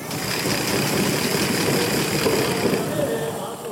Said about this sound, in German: Während aus dem Buch Esther vorgelesen wird, sitzen die Gemeindemitglieder mit kleinen Ratschen in den Händen und warten, bis der Name Hamann fällt. Der Name dieses Antisemiten soll durch die Ratschenlautstärke und durch Klopfen übertönt werden.